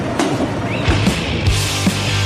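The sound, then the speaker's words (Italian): A loud spray hisses steadily for a couple of seconds, broad and airy, with a few soft knocks and bumps underneath and no one talking. “Sentite lo spruzzo, ok, ok, sentiva lo spruzzo, ancora, ancora.”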